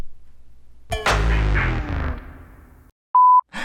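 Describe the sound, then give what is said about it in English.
A single loud, steady censor bleep covering a cuss word, a pure electronic tone lasting under half a second, follows a ringing, fading musical crash near the start. No voices are heard. “I realize it's a bit ironic that I beeped out the cuss word on a channel entitled Uncensored Church.”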